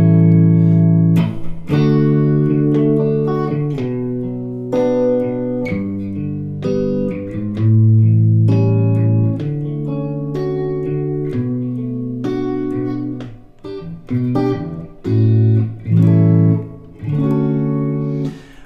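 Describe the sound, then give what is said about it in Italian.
A sequence of sustained chords played on an instrument: three-note triads of D major, B minor and G major, followed by fuller four-note seventh chords ending on A seventh. Each chord is held briefly with clear, steady pitches, moving at a moderate, even pace with no talking. “Se io suono, vabbè, li suono, triadi e poi solo la, la quattro voci con la settima.”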